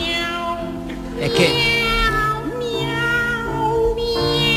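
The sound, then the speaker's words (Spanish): Two operatic voices, Kirite Kanagua and …, sing Rossini's famous Cat Duet (El dúo de los gatos), made of sustained, sliding meows, trading and overlapping phrases over soft piano accompaniment, imitating cats in a playful, melodic exchange. “traemos algo que sí, por fin, está bien cantado, pero que por fin un compositor hizo para que nos riéramos, que es la famosa pieza de El dúo de los gatos, cantado por Kirite Kanagua y ….”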